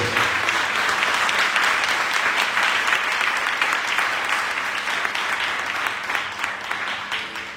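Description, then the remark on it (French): An audience applauds steadily to acclaim the word of the Lord after a Bible reading, a dense wash of many hands clapping at once that stays loud for several seconds before easing slightly toward the end. “Que ceux qui aiment la parole acclament la parole du Seigneur.”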